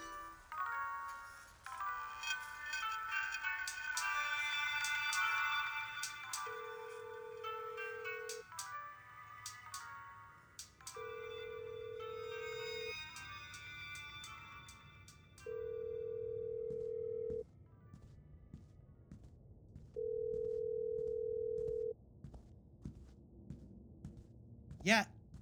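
A phone call rings out unanswered: four steady ringback tones, each about two seconds long, evenly spaced, following some brief talk and clatter at the start, with nobody picking up.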